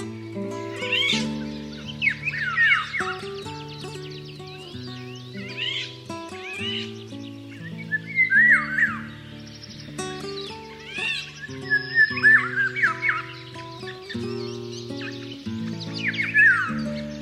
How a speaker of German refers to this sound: Das war der Pirol.